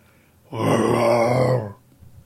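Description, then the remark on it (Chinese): A person voices a single long, growling roar imitating a tyrannosaurus, low and rough with a strong rumbling buzz, holding loud and steady for about a second before cutting off. “暴龙还教他如何吼叫。”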